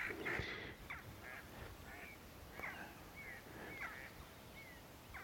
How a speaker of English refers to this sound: And two, two mallard just flying overhead and very obligingly doing so too. That was rather lovely timing.